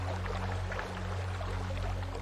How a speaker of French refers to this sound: Puis il entend une lointaine rivière.